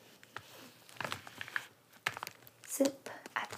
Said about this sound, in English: bubble wrap on the inside of these two plastic pieces. Nothing fancy, but I recommend this kind of bag for any glass type bottles or anything like that because the bubble wrap will help to make sure that it does not get broken.